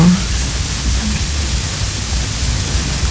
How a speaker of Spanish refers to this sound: Es porque están los ángeles aquí, Dios mío, nos están acompañando y están causando interferencia en las comunicaciones.